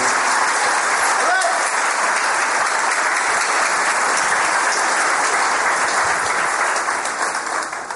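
A crowd applauds steadily for several seconds for a speaker from Chile, a dense, even wash of many hands clapping at full volume that only begins to thin slightly at the very end.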